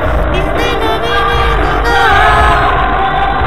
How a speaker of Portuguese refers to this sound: Ai, que gritaria, eu tô surda.